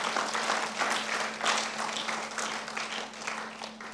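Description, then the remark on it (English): A crowd applauds steadily for a few seconds, many hands clapping in a dense, continuous wash of sound that swells slightly midway. “put your hands together for him hallelujah”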